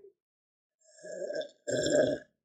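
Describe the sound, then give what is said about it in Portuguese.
Two loud slurping sips of coffee in quick succession, the first building gradually and the second stronger and more abrupt, with no talking. “Vou até tomar mais um pouquinho de café.”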